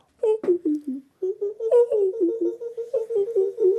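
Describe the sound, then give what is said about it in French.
A person vocally imitates a Senegal coucal's call: a fast, bubbling run of short, hollow hooting notes that dip in pitch, repeated steadily and fairly loud, with a brief pause after the opening notes. “Vous partez au Sénégal, par exemple, où il y a eh beaucoup On va travailler le coucal du Sénégal parce que c'est l'oiseau.”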